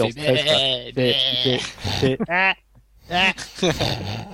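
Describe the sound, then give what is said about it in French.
A voice mimics a cartoonish Super Nintendo game character's hit sound, a series of nasal, bleating vocal bursts with wobbling pitch, fairly loud, broken by brief pauses. “Sauf le bruit de quand il se fait toucher, là, à chaque fois”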